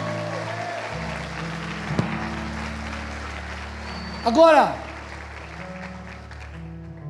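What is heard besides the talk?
audience applause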